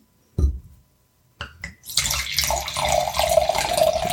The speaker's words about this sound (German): So, die Augen sind zu, die Flasche in meiner Hand. Ich nehme dein Glas und schenke ein.